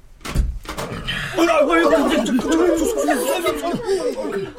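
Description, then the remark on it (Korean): The metal door of a container break room bangs open with a single heavy clatter near the start as the site manager opens it unannounced, then several people eating lunch chat and laugh over one another in the echoey container. “소장이 예고도 없이 컨테이너 휴게실의 문을 열었다.”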